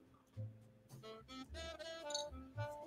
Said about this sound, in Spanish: perdón, le voy a dar un trago a mi café porque yo no sé hoy, pero hoy.